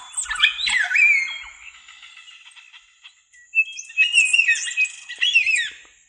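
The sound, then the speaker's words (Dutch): A recording of birdsong played as a song from an album: busy chirps, squawks and warbling calls layered together, bright, with a quieter stretch in the middle before the chorus picks up again. No one speaks. “hoe je bepaalt wanneer een liedje afgelopen is als het over vogelgezang gaat”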